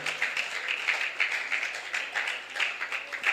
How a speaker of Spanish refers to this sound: Cuando usted sienta aplaudirlo, hágalo con júbilo. Aunque el que esté a su lado se anime a hacerlo más tarde, Él es digno de ser glorificado.